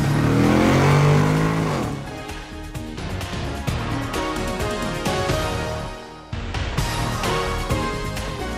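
A car engine revs hard and accelerates, its pitch climbing in sweeps before settling into a loud, steady roar with a brief drop partway through, with no voices.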